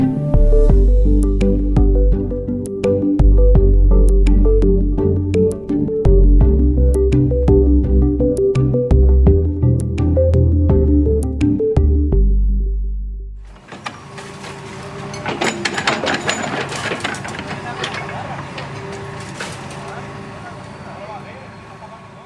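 A crane demolishes a shack in sector 6 of the Cañada Real, an irregular settlement in Madrid, Spain: after a stretch of music ends, heavy machinery rumbles and grinds while debris crashes and clatters repeatedly, fairly loud.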